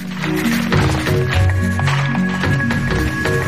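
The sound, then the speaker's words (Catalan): Music with sustained tonal notes shifting in pitch over a busy, percussive clacking rhythm like typewriter keys, steady and fairly loud throughout with no voices. “si us fixeu, sembla una màquina d'escriure, ara amb el company el Lluís, no?”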